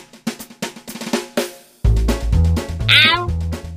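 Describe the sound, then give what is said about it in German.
A chorus of cats meowing together: short, clipped meows at first, then a swell of long, overlapping yowls held at once, loud with no talking. “Jeder Mensch liebt den werbenden Gesang, den Kater vor allem im Frühjahr seiner erwählten Katzendame darbringt.”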